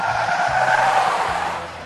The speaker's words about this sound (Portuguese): Aí quando a gente vê de longe, assim, o carro tá caindo em cima de um estacionamento de um, superior de um prédio. É. Uhum. O carro cai, arrasta os 20 metros e para numa vaga, perfeitamente.